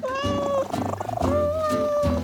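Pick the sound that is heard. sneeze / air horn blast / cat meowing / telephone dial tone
cat meowing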